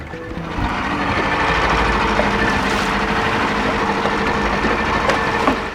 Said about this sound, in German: Das kleine Stahlboot rast an diesem düsteren Morgen über das graue Wasser der Bismarckbucht. Hin und wieder springt das Boot über die leichte Dünung. Der tropische Himmel von Papua-Neuguinea ist heute bewölkt.